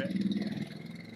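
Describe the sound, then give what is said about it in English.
A neighbor's motorcycle engine rumbles past outside, its low drone strongest at first and then fading quickly as it moves away. “there's your motorcycle. Yep, new new motorcycle neighbor.”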